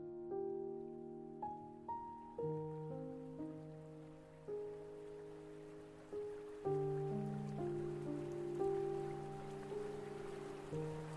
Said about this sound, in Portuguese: som da água correndo, ele chama sua atenção. E você chega a encontrar um pequeno e lindo riacho curvando-se pela floresta, com água cristalina.